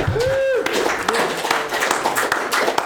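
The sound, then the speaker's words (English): Audience applause welcoming a special guest, a dense, steady wash of many hands clapping for about three seconds, with a brief rising whistle near the start and some crowd voices mixed in. “Please, round of applause for yeah.”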